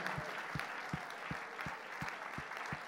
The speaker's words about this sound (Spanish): ¿Cuánto pueden tributar un fuerte aplauso de alabanza al Señor?